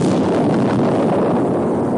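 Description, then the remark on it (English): A model plane crashes into the ground and explodes: a loud, sustained roar of rumbling, crackling noise fills the whole moment, heavy, with no voices. “has got the remains of a plane to clear up now.”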